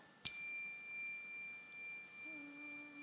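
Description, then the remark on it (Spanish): A different bell from the ones played before is struck once with a sharp clang, then rings on as a steady, high-pitched tone that fades only slightly. It is fairly quiet and heard alone, with no talking. “Entonces, ahora voy a hacer la prueba de tocar otras campanas, además de las que toqué.”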